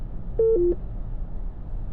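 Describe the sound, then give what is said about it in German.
A short two-note electronic chime from a car's Uconnect hands-free phone system announcing an incoming call, a steady tone stepping down to a lower one, heard once over a low, constant engine rumble. “Eingehender Anruf. Drücken Sie die u connect Tele”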